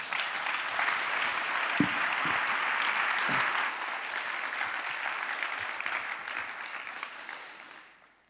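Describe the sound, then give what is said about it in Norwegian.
An audience claps steadily for several seconds for the people who have just shared their story, a dense, even wash of many hands with a few sharper individual claps, then the applause fades out at the end. “Så skal vi klappe for dem.”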